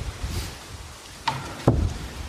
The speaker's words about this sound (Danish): lukker lige døren, så vi kan få den pisket op.